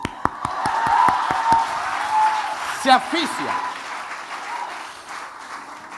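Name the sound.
applause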